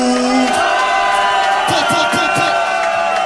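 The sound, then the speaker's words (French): A large concert crowd roars and cheers continuously after the performer asks them to make noise for a musician, with scattered whoops and shouted voices rising above the dense, loud wall of noise. “Faites du bruit pour mon gars …, sans lui rien de tout ça ne serait possible.”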